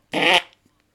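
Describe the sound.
A single loud, buzzing raspberry blown with the lips, mimicking a fart, lasting about a third of a second before trailing off into quiet.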